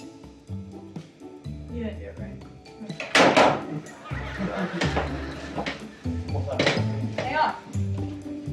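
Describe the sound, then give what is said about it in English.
An old rotary phone being handled and dialed, with several sharp clacks and clinks at irregular intervals, while people talk over the noise. “Do we pick up the receiver, put the receiver down? What's this? Do you, do you have to let the thing go all the way back?”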